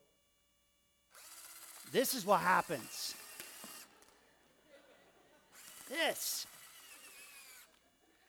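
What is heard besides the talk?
power drill running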